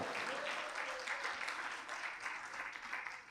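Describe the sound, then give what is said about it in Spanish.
A church audience claps steadily in praise to God, a dense wash of many hands applauding together without pause, fairly loud, with faint voices mixed into the noise. “Si va a aplaudir, aplauda y dele gloria a Dios bien fuerte.”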